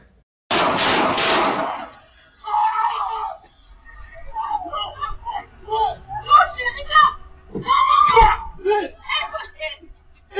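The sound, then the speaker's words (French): Three loud gunshots crack in rapid succession, a man being shot in the foot, followed by panicked, frantic voices crying out and shouting over one another, including his partner panicking. “vous allez entendre rapidement le trois coups de feu, puis ensuite la panique”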